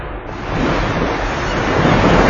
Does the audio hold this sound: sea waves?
yes